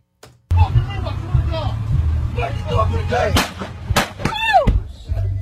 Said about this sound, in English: Oh shit! That is obviously the sound from inside the car. That's another shot. Four oh shots. Oh they shot him.